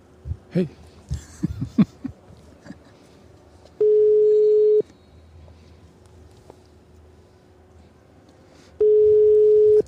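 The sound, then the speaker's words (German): A phone line's ringback tone of an outgoing call to Denmark: two long, steady beeps about five seconds apart, each lasting roughly a second, after a few soft clicks and handling noises at the start. “Ja, dann wollen wir doch mal gucken, ob in Dänemark jetzt jemand ans Telefon geht.”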